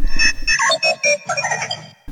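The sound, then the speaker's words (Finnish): A mobile phone ringtone plays a quick, bright melodic phrase of short tonal notes, clear, with a low rumble underneath at the start and no talking. “alkoi taustalla soimaan kännykkä poin ja se tarkoittaa, että siirrymme seuraavaan.”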